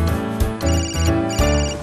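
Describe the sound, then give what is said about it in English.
A cell phone ringtone plays a bright, steady electronic melody on a Beijing subway train, repeating short tonal phrases over a low rumble, with no one speaking. “Unlike most subway systems, Beijing boasts underground cell phone coverage on most trains.”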